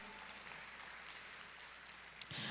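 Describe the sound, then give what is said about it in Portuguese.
A crowd claps steadily in a dense, continuous patter that stays fairly even, swelling slightly louder right at the end, with no voices over it; the applause is for the Fortaleza City Council passing a law declaring the church an essential service. “Dá uma salva de palmas.”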